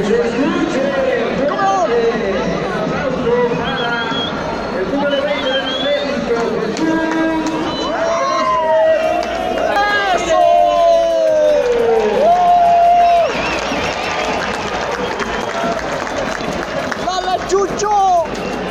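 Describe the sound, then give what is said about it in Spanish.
A large stadium crowd chants "el peluche" and cheers, a loud, unbroken roar of many voices shouting together, the pitch of the chant swelling and falling throughout. “Estaban gritando el peluche.”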